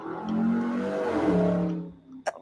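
A car engine revs loudly outside, its droning pitch climbing and shifting for about two seconds before fading, followed by a few brief sharp knocks.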